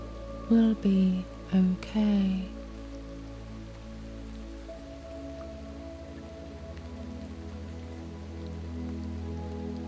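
Steady rain patters on a surface throughout, a soft, even hiss that continues unchanged, with a few brief voiced sounds near the start rising above it.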